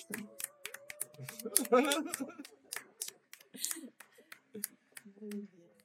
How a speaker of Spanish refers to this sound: Hay que desilenciarse, que si no, no os oigo. Hay que desilenciarse, desilenciarse y aplaudir, venga.